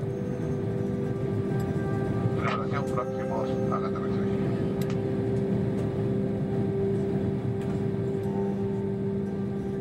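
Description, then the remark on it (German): A steady, loud low-pitched engine drone fills an airplane cabin in flight 10,000 meters above the sea, with a constant hum and faint tonal whine throughout; a few brief muffled voices surface in the background. “10.000 Meter über dem Meer. Ein Blick aus dem Flugzeugfenster.”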